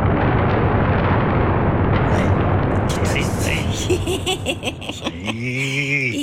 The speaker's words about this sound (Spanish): Porque ahora ya es las teclas. Ajá, con el sonido de. Ah, entonces todos los truenos son salen diferentes.